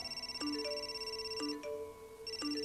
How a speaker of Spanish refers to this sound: Ya en su casa, los teléfonos no paraban de sonar